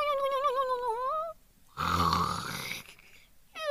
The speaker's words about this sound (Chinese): 那是什么声音？ 我不知道。 好像是有人在打呼噜耶。 让我们看看是谁。 Oh no，是捣蛋鬼狐狸。 他睡着了。